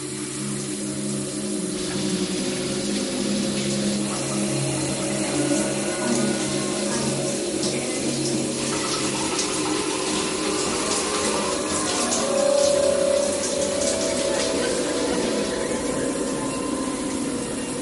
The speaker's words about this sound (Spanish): Pensé en darme una ducha de agua caliente antes de acostarme.